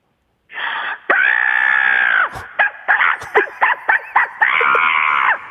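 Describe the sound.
A person imitates a crow, the second of two crow imitations heard in turn, starting with long, loud, strained caws and then breaking into a rapid series of short, choppy caw-like bursts before one final drawn-out cry, all loud.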